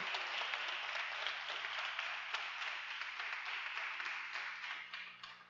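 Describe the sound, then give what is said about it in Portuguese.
An audience bursts into sustained applause to glorify God, a dense, steady wash of many hands clapping at once that holds strong for several seconds before tapering slightly at the end. “Glória a Deus, dê um aplauso bem forte a Ele.”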